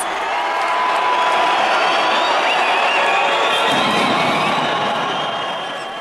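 A large indoor crowd of wrestling fans at a wrestling match cheers and yells continuously, a dense wall of voices with high-pitched shrieks rising above the roar, sustained and loud throughout.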